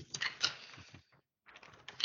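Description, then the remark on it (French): A person handles paper sheets, which rustle and crinkle in two short bursts of soft, crackly noise, separated by a brief silent pause. No one speaks. “fais du bruit avec mes feuilles.”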